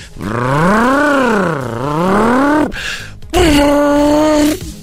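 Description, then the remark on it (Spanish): A loud, tonal simulated engine roar from an electric Charger Daytona SRT car, played through speakers as it accelerates, swelling and bending in pitch, then a short pause before a second, steadier and higher-pitched burst that cuts off abruptly. “Cuando ustedes aceleran el carro, lo que pasa es de que tiene bocinas y la bocina amplifica un sonido.”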